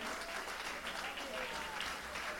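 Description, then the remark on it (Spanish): A church audience claps together in sustained, even applause given to the Lord, a dense wash of many hands at a steady level throughout, with faint voices mixed into the crowd noise. “Dale el aplauso al que vive y reina por siempre.”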